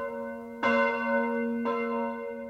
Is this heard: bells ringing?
yes